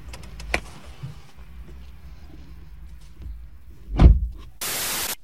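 A car's automatic door, closed at the press of a button, shuts with a solid thud after a stretch of low, steady mechanical hum, followed by a short burst of bright hissing noise.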